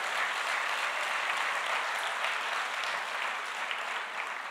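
Sustained audience applause, a dense steady wash of many hands clapping at an even loudness for several seconds, with no voices standing out above it.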